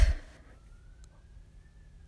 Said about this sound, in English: ooh, there's sirens outside.